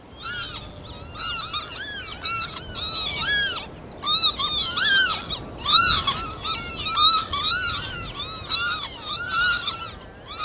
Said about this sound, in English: Well, of course, lapwings are known by lots of different names, and one of those is peewit, which is derived from the alarm call. So let's just listen to a recording that Chris Watson's made.